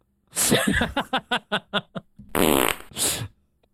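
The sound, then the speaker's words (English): A loud fart sound effect: a rapid run of sputtering pops gives way to a longer, buzzy, raspy blast, with nobody talking. “Uh, anyways, uh, yeah, the cows make that noise, and that's why the environment fails.”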